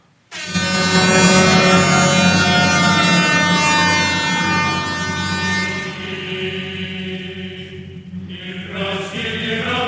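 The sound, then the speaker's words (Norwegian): A loud orchestral passage from a work Shostakovich wrote at 21 for the tenth anniversary of the Russian Revolution holds a dense, blaring chord for nearly ten seconds, brassy and horn-like, with inner tones shifting toward the end. No voices are present. “Det høres sånn ut. Det er et mus lite musikkeksempel her.”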